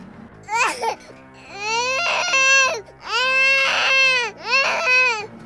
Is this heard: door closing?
no